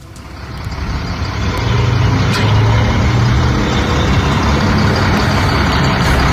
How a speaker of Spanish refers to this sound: Está la enorme grúa. Está una camioneta detenida. Ahí están los autos de Proespa.